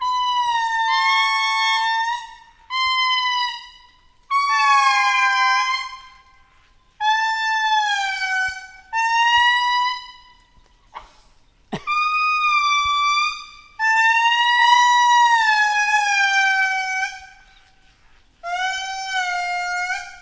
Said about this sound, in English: but here is the magnificent Indri wailing.